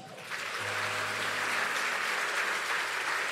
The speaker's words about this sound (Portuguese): Isso merece uma salva de palmas.